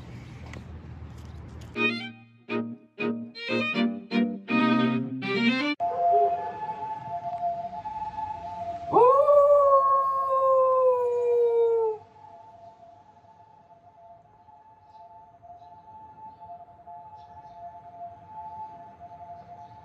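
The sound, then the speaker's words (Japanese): A Hokkaido dog named Toyoichiro, on a morning walk along the Toyohira River riverbank on a clear autumn day, lets out a series of short yelping cries, then one loud, drawn-out howl that rises and holds for a few seconds. A faint steady tone lingers afterward. “おワンワン言ったのもう一回言ったらおワンワン”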